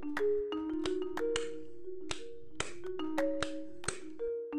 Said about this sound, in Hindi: उन्होंने अपने टेंट के अंदर एक लैंप चला रखा था अचानक वो लैंप बुझकर फिर से जल गया वो फिर जलता और फिर बुझ जाता टेंट के बाहर वो उस लैंप की बटन को दबाए जाने की आवाज़ सुन सकते थे